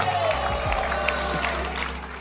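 A large crowd applauds steadily and loudly, a dense wash of clapping with some cheering mixed in, filling the whole short stretch.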